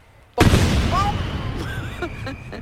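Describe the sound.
A large firecracker called El martillo de Thor (Thor's hammer), made in Andalusia, goes off with a single sharp, very loud blast after a brief quiet moment, followed by a long rumbling, crackling tail that slowly fades, with faint voices calling out underneath.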